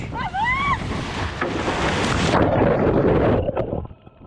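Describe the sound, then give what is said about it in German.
Rough Atlantic Ocean waves surge and wash around a small rowing boat on a 4,723-kilometre, 75-day crossing, with loud wind buffeting the microphone. A brief rising whistle sounds at the start, and the roar eases near the end. “Bevor ich gleich mit ihr spreche, geht es aber erst noch einmal kurz mit ihr zusammen, zumindest akustisch, zurück auf den Atlantik.”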